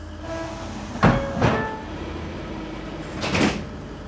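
A locomotive engine rumbles steadily with a low droning hum, broken by three louder hissing, clanking bursts spread across the few seconds. No one speaks.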